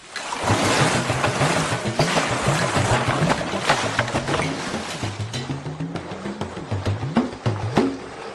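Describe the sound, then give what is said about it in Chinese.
Red deer in a northern European forest in autumn, standing face to face and roaring at each other in deep, drawn-out bellows, several calls rising and falling in pitch, heard over a steady rushing, hissing background noise. “秋季，在北欧的丛林里，忽然传来了某种动物悠长的叫声。乍一听呀，好似是牛叫，又像是狮吼，很难让人分辨清楚。”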